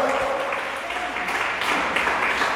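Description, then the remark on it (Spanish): A church audience claps steadily in praise of God, a dense wash of many hands applauding at once with no pauses, fairly loud, with faint voices mixed into the clapping. “Órale palmas al que merece la gloria.”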